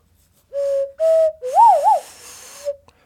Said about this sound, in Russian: А это носовая флейта называется. На ней играют носом.